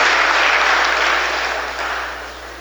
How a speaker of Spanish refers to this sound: Y ustedes que son los llamados a ser los líderes del Salvador, regálense un fuerte aplauso, jóvenes estudiantes, compañeros maestros y maestras, personal administrativo de servicio.